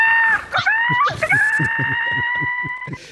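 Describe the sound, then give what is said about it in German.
Birds whistling, played as a success jingle: a loud, sustained high whistling tone with a few sliding pitch jumps early on, over a steady rhythmic series of low thumping pulses, with no one speaking. “Die Vögel pfeifen jetzt, von den Dächern.”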